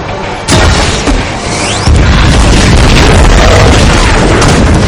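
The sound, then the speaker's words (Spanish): A sharp bazooka blast erupts, followed about a second later by a heavier car explosion that roars into a long, loud rumbling crackle of debris and fire with no voices. “Facebook apunta con su bazooka.”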